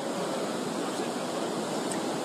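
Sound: rushing flooded river water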